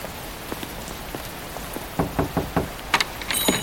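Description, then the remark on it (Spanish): Heavy rain pours down in a steady, dense hiss, with irregular louder drops splattering on a hard surface, growing busier toward the end as the rain gets heavier. No one speaks. “Rápido, que está lloviendo más fuerte.”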